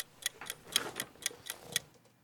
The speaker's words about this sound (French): Je sens la peur en toi dès que tu entends le, timer.